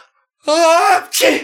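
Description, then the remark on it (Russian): A loud sneeze in a fragment of a musical stage play, voiced in a theatrical way: a drawn-out rising "ah" breath leads into one sharp, explosive burst. It sounds acted rather than natural. “А, а, а апчи!”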